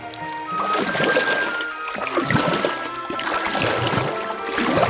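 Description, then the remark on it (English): A rowing boat moves along a river as Toad rows past, with oars dipping and splashing in a loose rhythm over a steady wash of moving water. No one speaks. “Mole saw Toad rowing past them in a boat.”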